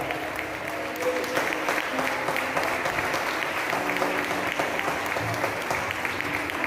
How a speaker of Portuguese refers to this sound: Por isso, nessa noite, Pai, levantamos mãos santas e aplaudindo o Teu nome, glorificando a Ti, te agradecemos.